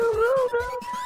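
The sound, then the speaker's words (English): A voice imitates a hound dog's howl, Copper (voiced by Corey Feldman) finding the fox in The Fox and the Hound: one sustained, wavering, fairly loud cry that slides slightly in pitch, with no talking. “that is Copper Corey Feldman finding the fox from Fox and the Hound.”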